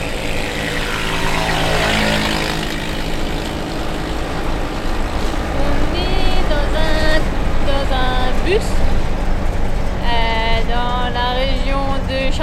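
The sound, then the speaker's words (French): A small vehicle's engine drones steadily and loudly while riding in the back of a tuk-tuk bus toward a small jungle village on a very hot morning, with wind rumble and people talking intermittently over the motor. “Pour rejoindre le petit village dans la jungle, nous devons ensuite faire quelques dizaines de kilomètres à l'arrière d'un bus tuk-tuk.”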